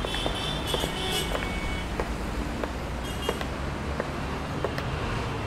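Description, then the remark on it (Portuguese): A car with plate POQ 2341 rolls up, its engine a steady low rumble over background road noise, with a few light clicks and ticks scattered through. No one speaks. “Carro é esse aí? POQ 2341, é esse mesmo.”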